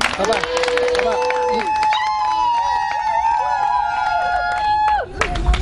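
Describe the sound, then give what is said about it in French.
An audience at a baptism service erupts in cheering and clapping to acclaim God: sustained high voices and whooping cries ring out over scattered hand claps that swell at the start and return at the end. “Est-ce qu'on peut acclamer Dieu”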